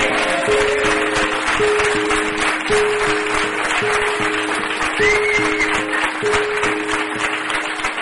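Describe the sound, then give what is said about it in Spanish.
Sustained, dense clapping from a sizable audience fills the whole stretch, steady and fairly loud, while a simple melody of held musical notes plays along underneath. “¡Fuertes aplausos!”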